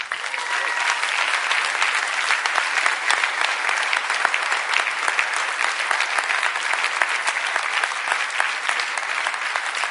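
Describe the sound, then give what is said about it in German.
Sustained applause from a large audience for the housewives standing up among them, a dense wash of clapping that stays steady and loud for about ten seconds without letting up. “Lassen Sie ihnen mal einen Applaus geben.”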